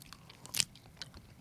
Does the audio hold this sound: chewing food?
yes